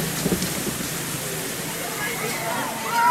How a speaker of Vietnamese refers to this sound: Mưa như thế này thì làm sao phải tập